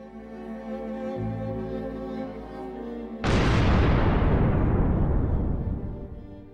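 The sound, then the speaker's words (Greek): A low, steady rumble gives way to one sudden, powerful explosion that erupts at full force, then rolls and fades slowly over several seconds. No voices are heard. It happened around 3 or 4 in the morning and was strong enough to blow open a window. “Κατά τις 3 ή 4 το πρωί με ξύπνησε μια τρομερή έκρηξη.”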